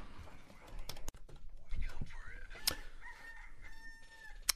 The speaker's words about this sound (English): Thank you, cock, chicken, whatever it is.